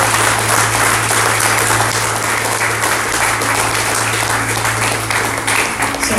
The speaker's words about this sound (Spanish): se trata de quien está sentado en el trono de gloria, al cual le pido que le dé un fuerte aplauso en esta tarde, por favor.